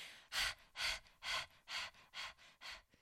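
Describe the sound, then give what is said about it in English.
A person imitates a relaxed dog panting, breathing out of the mouth in six quick, even breathy bursts in a steady rhythm, moderately loud, with no talking, as a relaxation breathing technique. “i'll do the dog breathing as a way to just say it's fine we're all we're all here together and that's just kind of like letting everything relax and then just breathing out of your mouth like a super relaxed dog who just took the best walk of the day”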